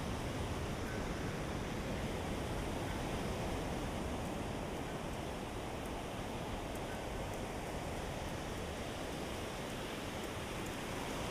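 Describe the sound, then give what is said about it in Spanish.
A steady, broad wash of sea surf rolling onto the shore, continuous and fairly even in level throughout, with no voices and no distinct individual wave crashes standing out. “Bueno, ahora tengo el mar enfrente”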